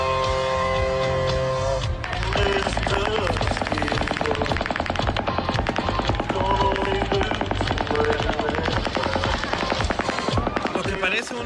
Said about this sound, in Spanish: es una pistola de alto calibre, man. Mm, bueno, y aparte dicen que estaba desde su habitación, ¿no? Aparentemente disparando al camarín.